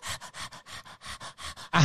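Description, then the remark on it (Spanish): A person imitates a dog panting: about ten quick, breathy huffs in a steady in-out rhythm, fairly loud, ending in a heavier, rougher exhale. “porque cuando yo pienso en saliva no pienso en sexo, yo pienso en un perro que se la pasa el, todo el tiempo”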